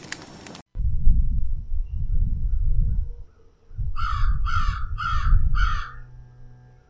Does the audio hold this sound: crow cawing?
yes